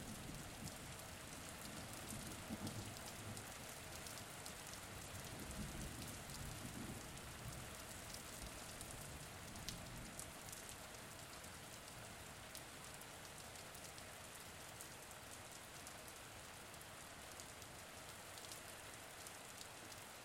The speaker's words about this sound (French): Écoute maintenant le son de la pluie. Dessine-la tomber sur ta terre en innombrables gouttes. Par son bruit, la pluie dessine les reliefs, fait surgir les formes et les contours.